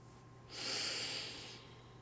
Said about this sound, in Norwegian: Hvis du, tenke, hvis du kjenner på magen, du legger hendene på magen, og når du da puster inn, så skal magen bule ut. Da prøver vi det.